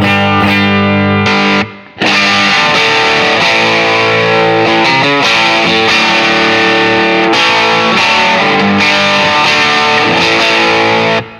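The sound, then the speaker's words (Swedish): A heavily distorted electric guitar at full gain plays loud, saturated rhythm chords with a thick, buzzing tone, briefly pausing near the start before continuing in steady strummed patterns, with no talking over it. “Nu är gainen full. Mm. Eh, och så provar vi på rhythm först.”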